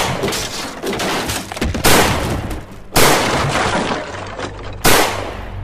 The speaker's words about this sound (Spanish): Poco después de que John Taylor cantara el himno por segunda vez, los prisioneros oyeron un crujido en la puerta y el estampido de tres o cuatro disparos.